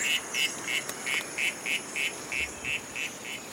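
A recording of an Oophaga lehmanni poison frog's call played back in the jungle, a steady train of about a dozen short, buzzy chirps, evenly spaced and fairly loud, over a constant high insect-like hiss and no voices.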